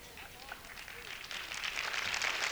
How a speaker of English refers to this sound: I'm almost through. I know that's why you're clapping.